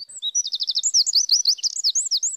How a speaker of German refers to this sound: Obwohl der Zaunkönig eigentlich sehr gut singen kann, wie man hört, ist er damit, zumindest in der Geschichte, nicht zufrieden.